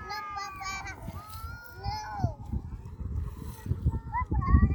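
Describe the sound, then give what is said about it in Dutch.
A family's children play in the water, their high voices calling and squealing in bursts over a steady low rumble of splashing and outdoor noise. “Oké, er kwam ondertussen wel een gezin met kindjes die voor me in het water liggen.”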